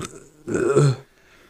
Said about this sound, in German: Excuse Mois. Schon das zweite Mal die Folge, dass du rülpst hast. Ja, Junge, ich habe ein bisschen Sodbrennen.